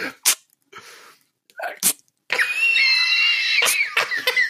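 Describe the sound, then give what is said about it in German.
A voice mimics a water splash with a series of sharp, breathy bursts and hissing sprays, followed by a sustained noisy whoosh with a whistling tone, fairly loud. “Und du hast, und du hast nur dieses Wassergeräusch gehört, dieses”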